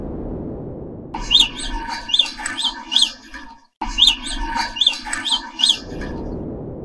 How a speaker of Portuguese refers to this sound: Esse primeiro som, ele mostra o sotaque do rato topeira pelado da colônia A.